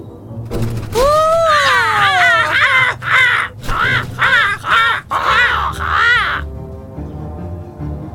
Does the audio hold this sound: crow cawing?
yes